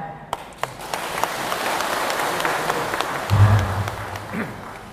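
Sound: audience applause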